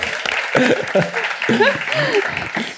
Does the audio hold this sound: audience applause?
yes